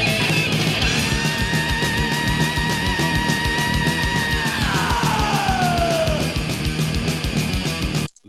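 A loud, sustained human scream rides over pounding heavy rock music with driving drums, holding steady before sliding downward in pitch and fading into the band.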